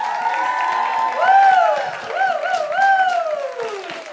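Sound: audience applause and cheering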